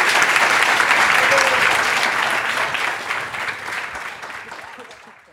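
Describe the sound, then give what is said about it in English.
An audience applauds panelists at the finale of a panel in a dense, steady wash of many hands clapping, loud at first and gradually tapering off toward the end. “So, guys, please give these wonderful panelists a huge round of applause.”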